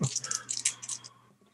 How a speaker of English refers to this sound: Okay. Whoops! I'm sorry. I rolled. I rolled a 12 and an eight-sided dice.